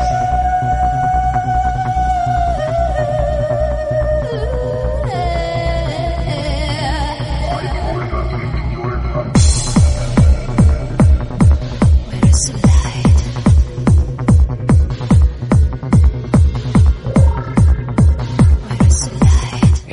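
An electronic dance track opens with sustained synth tones and a gliding melody, then a loud, steady pulsing kick beat kicks in about halfway and drives on evenly to the end.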